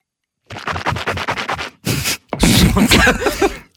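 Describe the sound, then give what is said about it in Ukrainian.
A voice imitates a man rinsing his teeth with tea while drinking it: quick rhythmic swishing bursts, a short hiss, then a longer, louder wet gargling sound. “Або як зрозуміти, що в нас різниця 10 років, тому що я не полощу зуби чаєм.”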